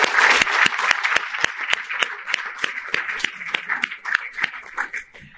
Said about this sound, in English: Uh, before we go on to those, I did want to recognize a, a few other folks. Uh, Kirk, Kirk Dillard uh, is here with us as well today. Please give him a round of applause.